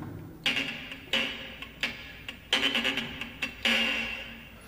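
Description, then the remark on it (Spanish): Harsh, scratchy rasping bursts from a violin bowed behind the bridge, almost where the string ends, the percussive 'chicharra' (cicada) effect, arriving in short uneven strokes with brief pauses, fairly loud, with no voices. “El primero, el principal, el que más se usa, la famosa chicharra.”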